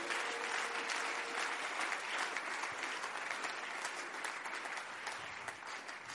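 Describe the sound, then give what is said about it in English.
A church audience claps steadily for several seconds as a clap offering during a pastor's sermon, a dense, even wash of many hands with no breaks, loud and sustained throughout, with no talking over it. “Increase that clap offering because I'm pumping wisdom into you.”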